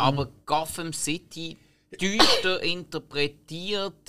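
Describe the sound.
A single abrupt sneeze bursts out mid-sentence, close and fairly loud, while a person keeps talking before and after it.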